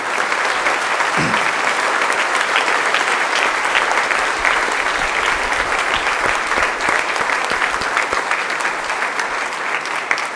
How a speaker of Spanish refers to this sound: Le damos un aplauso de alegría y de